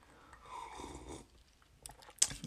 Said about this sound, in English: I'm choosing to ask you guys to hold on for a second while I take another sip of this delicious whiskey